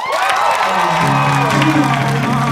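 A loud pop-punk song plays continuously, with a dense wall of distorted guitar and energetic sung vocals over a steady driving beat, filling the whole short stretch.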